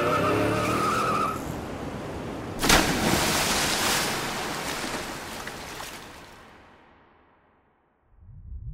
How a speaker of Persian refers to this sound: بعد از مکس کوتاهی دنده را جا کرد و پایش را روی پدال فشرد و ماشین روی نوار چوبی اسکله به حرکت درآمده و در انتهای پل داخل دریا افتاد.